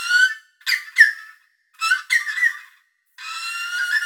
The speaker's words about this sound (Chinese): 猎豹是个唯一不会大吼的猫科动物，它没有办法像狮子这样，它的叫声其实是鸟类的叫声， 所以它看起来很凶猛，然后是个豹的样子，然后叫起来是啾啾啾啾哦。